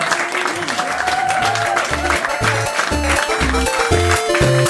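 An audience applauds steadily and loudly for several seconds, a dense wash of clapping that never lets up, while a melodic musical line with low bass notes plays underneath.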